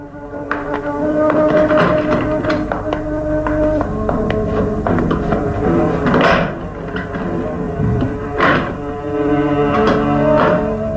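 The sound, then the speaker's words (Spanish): Footsteps tap steadily across a hard floor at a walking pace as a person advances toward a door, followed by another person, heard alongside sustained musical tones that play throughout. No one speaks. “Luego, avanza hacia la puerta, seguido de Lucas Van Doren.”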